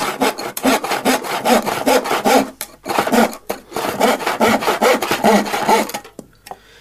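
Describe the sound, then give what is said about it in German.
A hand saw cuts through wood in a carpentry workshop in steady, rasping back-and-forth strokes, loud, with a brief pause partway before the sawing resumes and then stops. “wo wird auch viel mit Holz gearbeitet? In einer Schreinerei. Genau, da hören wir mal rein.”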